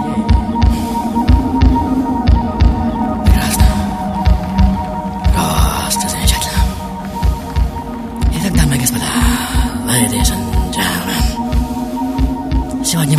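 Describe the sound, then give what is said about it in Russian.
A steady, rhythmic heartbeat thumps in low, repeated pulses over a sustained humming drone, with brief whooshing swells passing through; no one speaks. “Мистер, будьте добры, сердечное би-би-би-би-биение.”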